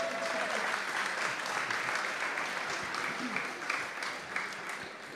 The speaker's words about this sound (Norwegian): Applaus for det.